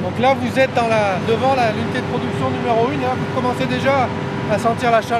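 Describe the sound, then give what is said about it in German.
A steady, droning machine roar with a constant low hum fills the background of a power plant's production hall, production unit number 1, a hall as large as a football field where electricity is produced, hot, with the air whirring and the floor vibrating in places, while a person talks over it throughout. “Mit jedem Schritt auf die vergitterte und mit einer Sicherheitsschleuse versehene Halle zu wird es lauter und heißer.”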